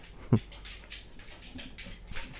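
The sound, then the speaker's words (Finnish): Office dogs move around in an office, producing soft rustling, scuffling bursts and a sharp tap early on, with faint breathy sounds. Everything stays quiet and there is no talking. “Nyt tuli toimistolle lisää toimistokoiria.”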